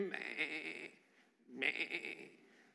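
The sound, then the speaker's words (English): Two drawn-out sheep bleats, fairly loud, each lasting close to a second with a brief pause between them, wavering and nasal with no other sounds around. “All of us, like sheep, have strayed away. Can't you hear it?”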